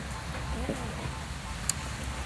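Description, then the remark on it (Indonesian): Light rain falls outdoors around a hut near a house close to a road, as a steady, soft hiss with scattered faint ticks and one sharper drip, with a faint murmur of voices underneath. “dan enak banget duduk sini dingin uh, sejuk karena mumpung lagi hujan juga jadi kalau soalnya suara yang nggak bersih ada suara motor mobil ya wajar lah kan dekat jalan juga terus ada rintik-rintik hujan ya”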